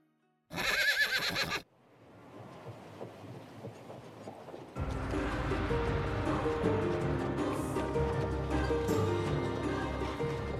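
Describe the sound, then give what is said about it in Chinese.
A horse gives one loud, shrill whinny lasting about a second, then the sound drops to a low rumble before a dense, steady wash of noise swells in and continues to the end. “一声马鸣打断了刘备的思绪。”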